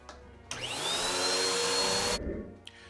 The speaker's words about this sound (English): Honey, I'm running the vacuum cleaner now.